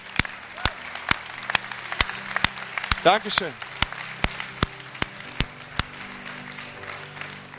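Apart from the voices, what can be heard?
audience applause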